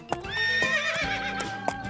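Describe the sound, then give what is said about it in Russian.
A horse being ridden along a narrow road full of ruts and ditches whinnies in a long, wavering, high-pitched neigh, while a few sharp hoof clops strike irregularly beneath it. No one speaks. “Хорошо, что азбука нас на лошадок пересадила.”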